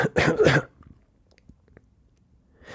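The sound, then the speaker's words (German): A man with a cigarette in his mouth ends his question with a short, phlegmy laugh that breaks into two or three rough coughs, then it goes quiet except for a few faint clicks and rustles. “Seine Frage beendete er mit einem versch verschleimten Lachen, verschleimten Lachen, das in Husten überging.”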